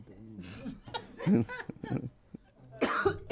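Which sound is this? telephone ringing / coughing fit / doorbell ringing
coughing fit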